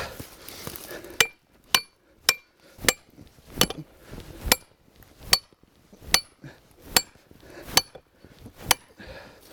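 Someone works a stuck chainsaw blade loose from wood after cutting two centimetres too far, with a steady series of sharp metallic taps, about a dozen ringing strikes spaced roughly half a second apart, with no talking.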